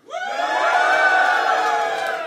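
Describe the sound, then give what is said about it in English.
A live audience cheers loudly when asked to applaud or cheer for options among Scottish political parties: a dense swell of many voices whooping and shouting that rises quickly and holds steady for about two seconds, with no speech over it. “Um, you know, very quickly, I'll, I'll, go through a few options, but you know, applaud or cheer if you like this.”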